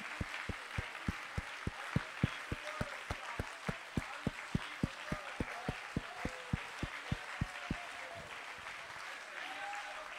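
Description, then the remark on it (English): A standing audience claps hands to praise God in a steady, rhythmic beat, sharp regular claps about every third of a second over a murmuring crowd, fading out near the end. “Keep clapping your hands and give God praise.”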